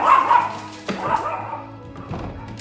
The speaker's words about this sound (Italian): abbiamo un cane pazzo.